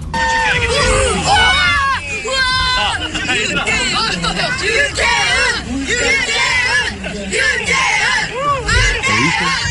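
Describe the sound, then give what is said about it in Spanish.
A crowd of children in Korea screams and shrieks excitedly in a stadium over Gol Caracol broadcasters, high-pitched overlapping yells rising and falling over a constant loud babble of voices for the whole stretch. “Y atención los niños de Corea, cómo se enloquecieron con los eh, colegas del Gol Caracol que estaban en el estadio.”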